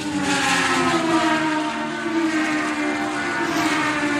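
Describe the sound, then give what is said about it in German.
Loud, sustained high-pitched engine roar of Formula 1 race cars at Zandvoort in the Netherlands, the pitch gliding slightly as they scream past, with a continuous dense wash of noise and no voices. “Das erste Mal seit 30 Jahren gibt es wieder Formel 1 in der Niederlande.”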